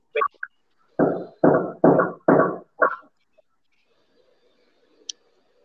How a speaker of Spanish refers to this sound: ¿Quién está martillando en la casa?